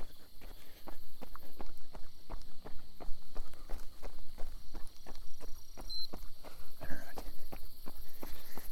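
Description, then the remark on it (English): Steady running footsteps thud in a quick, even rhythm, fairly loud, with a faint hiss of outdoor background beneath them, during a run-walk interval workout of two minutes running and 30 seconds walking, timed with a Gymboss. “So I'm doing two minutes run, 30 seconds walk.”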